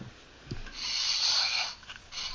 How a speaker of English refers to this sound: By the way, if you're listening to this and you're like, "What are those little clicking noises?" My brother and I are playing with my son, my baby son's Legos, while we're podcasting.